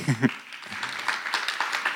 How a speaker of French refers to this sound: Alors, on va faire chaque fois, vous pouvez applaudir, ça va les encourager.